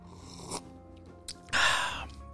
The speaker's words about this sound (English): So if you hear me sipping,